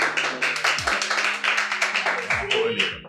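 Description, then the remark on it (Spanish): A live audience at a recording applauds in a steady burst of many overlapping hand claps, dense and fairly loud, lasting about three seconds with a faint low hum underneath. “Hoy estamos grabando eso con público, así que si oyen risa, oyen aplausos.”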